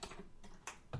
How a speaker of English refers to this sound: And that's a cat coming in the cat door.